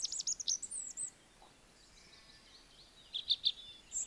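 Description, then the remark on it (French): A European robin sings high, thin warbling phrases, one burst at the start and another near the end, with a quiet pause between, soft, no voices. “Adieu, mon rouge-gorge.”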